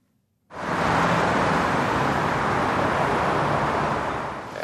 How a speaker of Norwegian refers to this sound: Etter sommeren så har lyden av ventende biler igjen fylt veiene inn til hovedstaden.